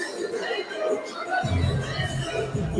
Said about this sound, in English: But whoever this guy's fighting is very popular. The crowd is going crazy over there. Everybody's got their phones out.